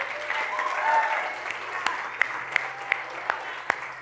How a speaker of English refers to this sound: Can we give the Lord a great big shout?